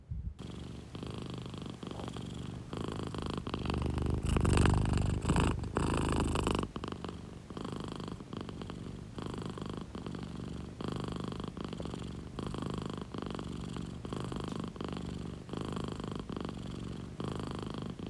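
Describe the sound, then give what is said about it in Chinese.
A cat on its sleeping roommate's bed purrs steadily for the whole stretch to wake him, a low rhythmic rumble that swells louder for a few seconds early on before settling back to an even drone. No one speaks. “嗯，那我用呼噜功震醒他吧。”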